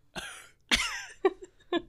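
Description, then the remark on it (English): A couple of sharp coughs about half a second apart, given as a reaction to a joke, followed by two short throaty grunts like clearing the throat, with no talking around them. “It's like perfect like single cough like reaction, just like”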